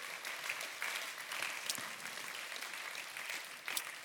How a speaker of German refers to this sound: Und hey, komm und lass uns mal hier aus dem Serenanhof mal unseren ganzen Freunden einen riesen, riesen Applaus geben.